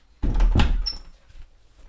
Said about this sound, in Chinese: 先把这个门呢，这个木门呢，把它扣起来，然后再把椅子呢用上去，再把里面这道门把它锁起来，让我们家毛毛毛先不能进来。